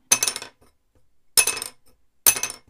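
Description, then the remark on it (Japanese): Two small wooden violin soundposts dropped together onto a hard surface, giving three sharp, bright clacks with brief ringing tails, spaced about a second apart, loud with quiet between. “2個一緒に落としたらどうなるんだろう”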